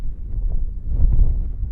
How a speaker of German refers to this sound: Wir sind in Ecuador, auf 4000 Metern Höhe, in den Paramos, den Hochmooren der Anden. Es ist eisig kalt hier, der Wind pfeift und es ist überall feucht. Vom Himmel fällt ein Nieselregen und der Boden gibt bei jedem Schritt nach wie ein Schwamm.